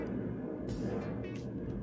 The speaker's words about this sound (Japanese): 聞こえますか飛行機の音。